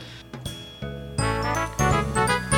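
A short burst of bright instrumental theme music, chiming tones stepping up into fuller, louder chords with a steady rhythmic pulse, close and clear with no voices.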